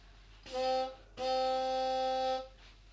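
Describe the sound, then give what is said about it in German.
A voice imitates a boat horn with two steady, buzzing blasts, a short one followed by a longer held one. The blasts are loud, with nothing else around them. “Nein, ein Boot Dings. Eine Boothupe.”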